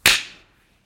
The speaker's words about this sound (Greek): Ε, νομίζω ότι ακούστηκε μόνο το δικό σου παλαμάκι. Το δικό ήταν συμπληρωματικό.